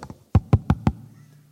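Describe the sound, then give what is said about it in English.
Two soft taps followed by four firm, evenly spaced knocks on a door, fairly loud, with a short ringing decay afterward and no voices. “hold on, somebody's at the door.”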